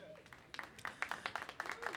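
An audience claps, starting with a few scattered claps and quickly settling into a steady run of brisk, overlapping hand claps at moderate loudness.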